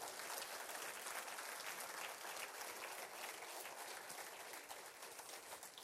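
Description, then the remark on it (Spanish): A crowd at a sermon claps steadily and loudly throughout in praise of the name of Jesus Christ, a dense wash of many hands applauding together that tapers off slightly near the end, with no one speaking. “Alabado sea el nombre de nuestro Señor Jesucristo. Dele un fuerte aplauso.”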